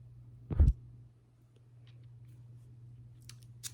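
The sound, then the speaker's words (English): A lighter clicks once, fairly loud, a brief scraping snap, then a quiet low hum follows with a few faint ticks near the end. No one speaks. “I got you a lighter. Just right here. Just a little. Just a little lighter.”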